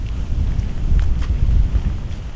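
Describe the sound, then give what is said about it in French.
Steady outdoor wind buffets the microphone during a long walk in wind and rain, a loud, deep rumble that surges and eases over a couple of seconds, with no voices present. “Alors, ça fait plus de 6 heures que je marche, dans le vent, dans la pluie, un peu avec le soleil.”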